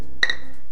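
Beer glasses clink together once in a toast, a bright ringing chime that fades over a fraction of a second, with no one talking.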